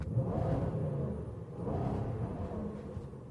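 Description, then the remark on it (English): An SUV engine revs hard under heavy throttle, a deep, rumbling roar that surges twice in quick succession, steady and loud throughout with no voices over it. “I don't know if you can pick that up on the mic, but this thing is like a joke loud.”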